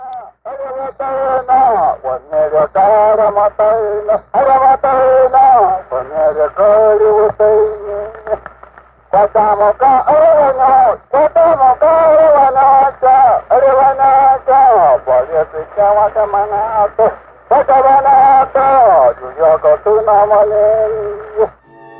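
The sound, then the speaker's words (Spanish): A coarse-groove phonograph cylinder recording, made at 120 revolutions per minute, of Tarahumara chanting: a single voice sings sustained phrases with brief pauses, sounding thin and muffled over a steady low hum and faint surface noise. “Y entonces ahora vamos a escuchar una grabación realizada en un cilindro de surco grueso, un cilindro grabado a 120 revoluciones por minuto y que eh, documenta eh, cantos de los tarahumaras.”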